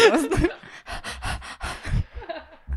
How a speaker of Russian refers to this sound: У нас тут какая-то собака дышит